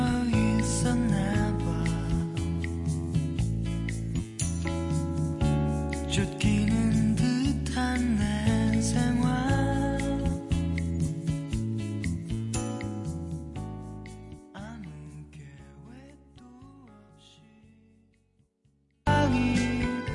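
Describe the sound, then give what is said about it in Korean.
A pop song plays on a radio programme with full band backing and a melodic line over a steady beat, gradually fading to near silence before a sudden loud burst at the very end. “노래 한 곡 듣고 정답 발표합니다.”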